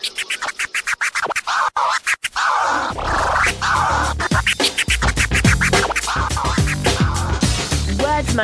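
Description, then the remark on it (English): Loud, choppy DJ scratching of a vinyl record on two turntables, with rapid back-and-forth record swipes, starting sparse and stuttering, then settling into a steady rhythmic pattern over a thumping beat. “I have been practicing on the two steel wheels all week. Let me drop the needle upon the wax and show you how I do.”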